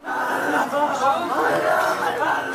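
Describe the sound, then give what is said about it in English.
An anguished crowd in Kabul, Afghanistan, clamors after a suicide bombing at the gate of a building housing a Shiite cultural center and a news agency, many overlapping voices shouting and crying out at once in a steady, loud, chaotic wall of sound. “Those are the sounds of anguish in Kabul.”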